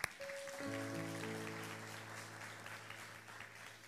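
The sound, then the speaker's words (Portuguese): An audience breaks into steady, sustained applause for the speaker's visiting family, a dense crackle of many hands clapping, while a held keyboard chord rings underneath through the whole stretch. “Bem, merece uma salva de palmas.”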